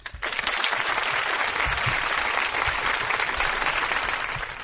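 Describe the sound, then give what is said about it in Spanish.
A short, dense burst of audience applause, many hands clapping at once in a steady, loud wash that starts abruptly and holds for a few seconds without any voices. “Un aplauso para ellos. ellos Corto pero intenso.”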